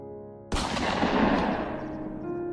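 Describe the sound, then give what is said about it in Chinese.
A sudden crack of distant hunting-rifle fire, coming from the sky near a lake, breaks a faint steady hum, then rolls on as a loud, broad rumble that slowly fades. No one speaks. “就在这时，远处空中传来一阵猎枪声。”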